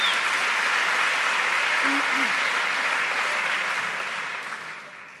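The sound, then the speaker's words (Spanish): Steady audience applause at a live music performance, a dense crackling wash of many clapping hands that holds for several seconds and then gradually fades out toward the end. “Sí, fuerte el aplauso.”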